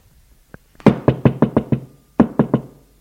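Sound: knocking on a door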